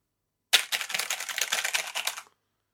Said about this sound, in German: Hier ist ja auch eine neue Tastatur dabei. Ich glaube, die ist auch ein bisschen leiser. Ich tippe mal kurz.